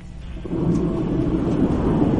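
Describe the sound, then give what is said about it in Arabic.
A steady, heavy rush of wind through the open window of a car being driven, heard over a phone call, deep and roaring, swelling after a brief softer start and then holding loud and constant with no one speaking. “يا ساتر يا ساتر قفل كل مخارج الهواء حتى المكيف طفه وش ذا الهواء اللي عندك”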